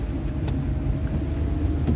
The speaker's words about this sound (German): Warum ich denn immer im Auto aufnehme und das ist ja so störend, die Geräusche und so.